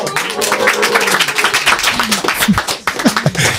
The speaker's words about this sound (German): Wir, wir, haben, wir können auch sehr wenig bezahlen, deswegen war der Applaus ja. nicht sonderlich euphorisch.